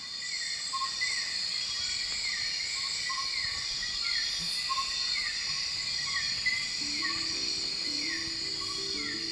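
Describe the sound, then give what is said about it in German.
A dense nighttime chorus of insects in the Borneo rainforest, with steady high-pitched buzzing and shrill layered chirps, repeating descending calls, and a faint low tone entering near the end. Continuous and immersive, no talking. “Zur Feier des Tages gerne nochmal Borneos Regenwald bei ja.”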